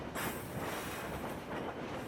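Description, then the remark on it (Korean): A train rolls past, a loud, steady rumble of wheels on rails with faint rhythmic clacks running through it, no voices. “기차가 간다. 기적을 울리며 저기 간다.”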